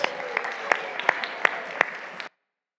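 A crowd at Grace Church claps steadily for the helpers for about two seconds, a dense patter of hand claps with a few sharper standouts, before it cuts off abruptly.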